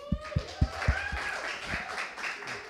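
A short burst of clapping: about five or six sharp, evenly spaced claps at a quick steady pace, then one more stray clap before it fades into a faint background murmur.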